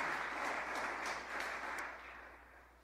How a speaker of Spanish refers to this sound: Bueno, aplaudamos, sí, sí. Vale, vale, vale.